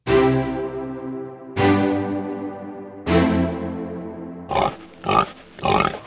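Three resonant chime-like strikes ring out and fade, then a pig gives three short grunting oinks in quick succession near the end.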